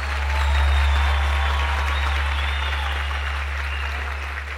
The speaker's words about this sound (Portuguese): Mel Marres, senhoras e senhores, mais salva de palmas para Mel Marres.